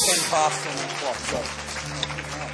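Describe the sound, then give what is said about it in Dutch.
A crowd applauds a band with steady, dense clapping that holds at an even level from start to finish, and a voice briefly rises over the noise. “Give our band a hand as well.”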